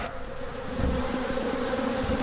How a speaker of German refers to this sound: Hier ist das Absperrgitter und da ist der Honig drin. Ich sehe richtig ein Gitter und da sind richtig viele Bienen drunter. Ich mache jetzt einmal das Gitter auf hier und die werden jetzt einmal kurz rauskommen. Aber sie tun euch nichts.